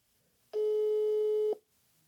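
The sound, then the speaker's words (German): A single steady telephone ringing tone sounds for about a second as a phone call is placed to someone's mother, a loud, flat mid-pitched beep with harmonics, starting and stopping abruptly with no talking over it. “Piept.”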